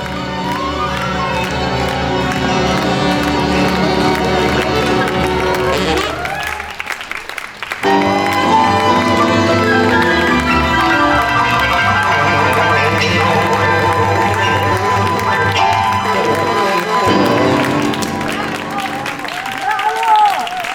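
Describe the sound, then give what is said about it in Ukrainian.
A theatre audience applauds and cheers the performers loudly and continuously at the finale of a play, alongside music from the stage, with a brief dip around the middle before the clapping and shouts surge back, crowded. “Зараз ви чуєте фоном фрагмент фіналу вистави і те, як гаряче підтримує глядач артистів.”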